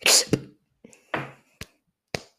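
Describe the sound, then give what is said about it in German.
A short beatboxed pattern: a voice imitates a drum kit in the order kick, hi-hat, inward K snare, hi-hat, with punchy kick-like thumps, hissy hi-hat bursts and a sharp inward-breath snare, repeated in a loose rhythm, fairly loud. “ja, und zwar ist es einfach nur äh, Kick, dann Hi-Hat, dann Inward Case ne, und dann Hi-Hat. Und das klingt so.”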